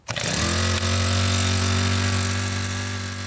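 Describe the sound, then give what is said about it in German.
A small motor pump for controlled irrigation, started after a week without rain on a newly planted area used for irrigation trials of the Hochschule Weihenstephan-Triesdorf, cranks and catches within a fraction of a second, then settles into a steady, loud droning hum with a low mechanical whine and rattle, no voices. “wirft nach einer Woche ohne Regen die kleine Pumpe für eine kontrollierte Bewässerung an.”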